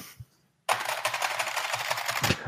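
Rapid, crisp key clicks from a clicky IBM replica keyboard start abruptly after a brief near-silence and continue as fast, dense typing, fairly loud, with no voices.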